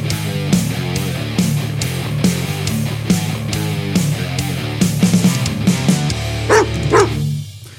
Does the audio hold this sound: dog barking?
yes